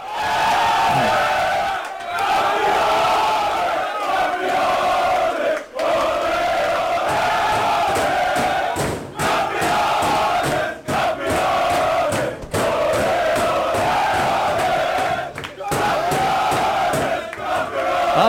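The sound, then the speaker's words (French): PAOK footballers celebrate winning the 2019 Greek Super League title in the dressing room after a 5-0 home win over Levadiakos, many voices chanting and shouting together in a loud, continuous, rowdy roar with only brief dips, the singing rising and falling in rhythm. “À la fin de la rencontre, l'ambiance dans le vestiaire était aussi chaude, aussi bouillante que celle du stade Tomba.”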